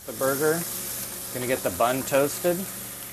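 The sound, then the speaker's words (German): Soy bacon and a burger patty sizzle together in a hot pan, a steady crackling hiss that runs throughout while a voice talks over it. “Jetzt braten wir das Soja-Bacon-Stück an, gemeinsam mit dem Burger.”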